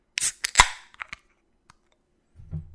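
A package's small seal tab is snapped open for an ASMR recording: a quick burst of sharp plastic cracks and clicks, a lone tick, then a soft low rustle of handling.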